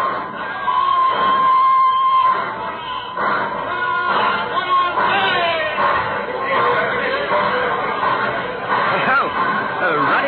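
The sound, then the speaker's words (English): Steady crowd chatter at a station, many overlapping voices forming a dense, continuous babble at an even, fairly loud level, with a few brighter tones and sweeps cutting through. “happy crowd out there at the station.”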